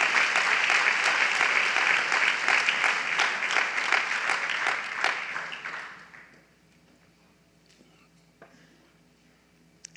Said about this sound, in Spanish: Ay, qué lindo ese aplauso. Démosle fuerte las palmas al rey.